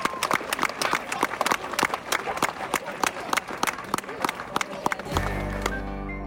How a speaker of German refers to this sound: und vielleicht den beiden auch mal einen Applaus, denn die haben unheimlich viel hier reingesteckt.